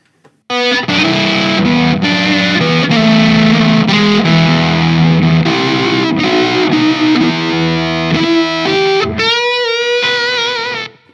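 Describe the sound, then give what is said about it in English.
A heavily distorted, high-gain guitar plays a chugging riff of dense, buzzing chords that shift pitch every second or so, loud and saturated throughout, ending on a brief higher note before cutting off. “that's way more gain than I would ever Yeah.”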